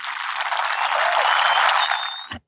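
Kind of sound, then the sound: sound effect, applause jingle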